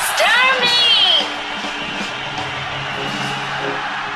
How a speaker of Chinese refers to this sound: 女士们、先生们，Ladies and Gentlemen，现在是大明脱口秀时间，掌声欢迎我们亲爱的